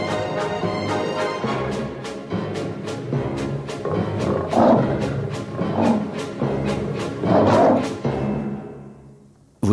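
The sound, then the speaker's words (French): Big cat roars from the sound effects of the film Le Roi et l'Oiseau rise and swell several times over a steady waltz with regular rhythmic pulses, loud, without any talking. “Car oui, les rugissements ont ceci de particulier, c'est qu'ils ont une courbe très particulière”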